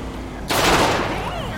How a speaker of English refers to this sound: Uh, code 99, uh, shots fired, out of a van.